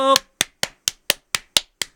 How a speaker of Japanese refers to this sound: 皆様拍手でございます